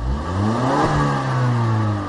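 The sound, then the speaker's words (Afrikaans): A base-model car's engine revs loudly through two alloy exhaust pipes on each side, its droning note climbing then easing back over a couple of seconds, with no voices. “Twee sulke lekker fris alooi uitlaatpyp aan elke kant, maar Die Union klank is niks spesiaal nie.”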